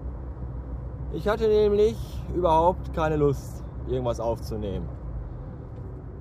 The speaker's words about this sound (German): Warum lässt er jetzt diesen scheiß LKW vor? Ich habe keine Ahnung. Warum ist überhaupt so viel Verkehr? Auf einem Montag um 11 Uhr morgens ist das Ruhrgebiet schon wieder dicht.